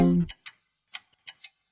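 An old clock ticks in crisp tick-tock pairs, a few sharp clicks spaced evenly in the quiet, just after a brief voice fades out at the start.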